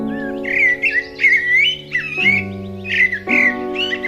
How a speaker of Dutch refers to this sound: Hoog in een boom begon voorzichtig een merel te zingen.